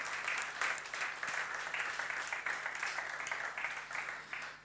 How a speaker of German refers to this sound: Und die Männer, die sollen mal richtig klatschen, ja.